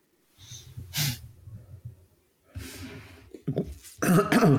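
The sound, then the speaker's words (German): Someone clears their throat several times, a series of raspy, guttural rumbles with short breathy bursts and a harsher final push near the end. “So, ich muss mich kurz räuspern.”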